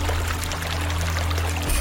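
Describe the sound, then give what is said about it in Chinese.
Water splashing and pouring in a steady, continuous rush as a large old frog surfaces, with a low droning hum underneath and a slight swell near the end. No one speaks. “水扑通扑通响了起来，老青蛙神仙终于现身了。”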